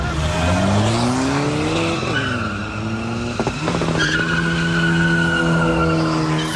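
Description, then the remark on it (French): An old Peugeot with purple neon lights drifts in a roundabout of a commercial zone turned into a circuit, with a loud, sustained engine roar rising and falling in pitch, tires squealing and skidding continuously through the turn, with a brief rough scrape midway. “Ce chauffard fait déraper sa vieille Peugeot au néon violet dans le rond-point.”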